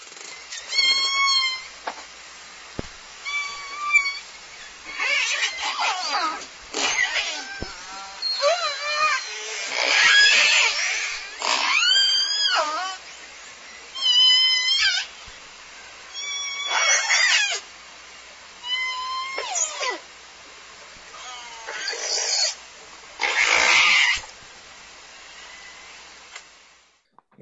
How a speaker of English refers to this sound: so those those were vocalizations, pulsed calls made by southern resident killer whales. Um, if you practice using the tools in our um, learning page, you can start to hear some of them as unique or stereotyped calls.